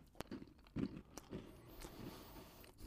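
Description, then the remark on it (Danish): Someone bites into a crunchy kleiner, a Danish fried pastry, followed by several crisp crunching chews and faint crackles, with no talking over it. “Og så sidder folk ud og siger, at den knaser lidt.”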